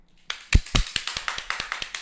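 A short burst of applause: quick, evenly spaced hand claps, about a dozen in two seconds, sharp and fairly loud, with no voices.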